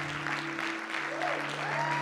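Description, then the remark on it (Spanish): A church audience applauds its volunteers steadily, a dense wash of clapping that holds at an even level throughout, with a low steady hum running underneath. “Y me gustaría darle un aplauso a todos esos voluntarios que fielmente sirven esta casa.”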